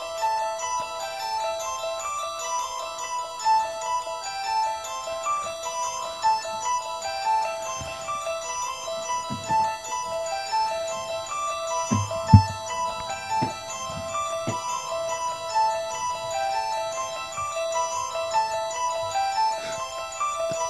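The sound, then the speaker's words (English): An eerie keyboard melody loops a short, repeating pattern of bright notes at a steady pace, with occasional soft low thuds underneath and no voices. “… yeah. …, yeah. of course, from The Exorcist.”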